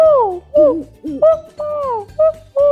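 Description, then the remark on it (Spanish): A child's voice imitates an owl, giving six loud hooting calls in quick succession, some long and sliding down in pitch, others short and clipped. “Después también me gustan los búhos que hacen... Uh, uh”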